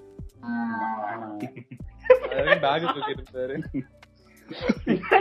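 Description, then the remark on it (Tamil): A person does a drawn-out, low imitation of a cow mooing on request, followed by chuckling and lively voices talking and laughing. “இப்ப மாடு கத்து மாடு”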